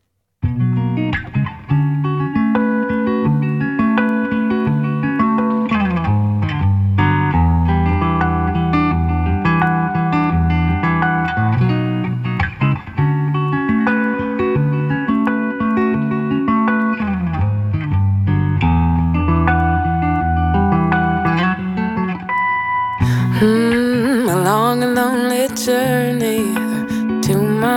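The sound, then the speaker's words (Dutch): A song by a British female singer plays loudly and continuously, with full, steady instrumental backing and a brighter, busier passage near the end. “we gaan eerst luisteren naar de Britse zangeres … met het stuk …”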